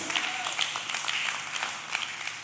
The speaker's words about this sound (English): If you clap like this, I can't preach. Come on. Let's do it better for God.